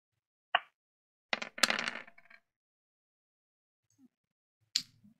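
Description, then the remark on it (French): Eight dice are rerolled, rattling and clattering onto a hard surface in a quick burst of sharp clicks, preceded by a single tap and followed after a pause by one more click. Moderately loud. “Avec un point de chance, je vais faire un reroll.”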